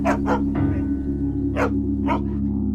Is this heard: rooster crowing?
no